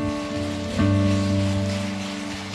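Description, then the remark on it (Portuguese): A church audience applauds the Lord in a steady, dense wash of applause over a sustained organ-like chord, the clapping swelling louder a moment in and holding, with no voices. “Você pode aplaudir o Senhor mais forte ainda?”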